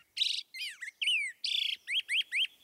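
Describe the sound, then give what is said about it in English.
A black-headed grosbeak sings a rich, rollicking series of warbled phrases, clear, with quick rising and falling notes in bouncy bursts and no other sounds. “This rollicking song belongs to a black headed grosbeak.”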